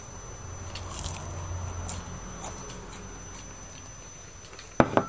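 Someone chews food while eating pork belly at home, recorded with a TASCAM DR-07X, with soft, irregular mouth clicks and smacks over a low steady hum, then two sharp, louder crunchy bites near the end.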